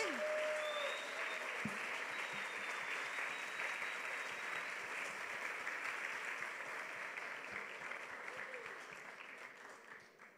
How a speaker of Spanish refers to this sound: Pues vamos a dar un aplauso al Señor, fuerte pero fuerte, ¿vale?